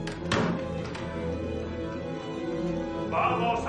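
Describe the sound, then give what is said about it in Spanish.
Several police officers force a door open with a heavy crashing thud, followed by a second, lighter knock, over a steady low droning background with a brief swell of noise near the end. “Varios policías rompen la puerta.”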